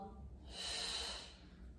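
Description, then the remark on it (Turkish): A single airy breath during a seated leg exercise, a soft hiss that swells for about a second and then fades, with no talking. “Nefes al, ver yana aç.”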